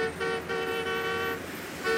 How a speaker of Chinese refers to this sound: 汽车的喇叭震天响。